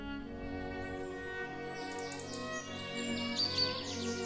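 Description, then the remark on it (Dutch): A short, steady musical jingle for a nature segment, with sustained tones, joined halfway through by bright chirping birdsong and a cuckoo call layered on top, all even in loudness. “Dit is Sheffield's natuurhoekje. Koekoek.”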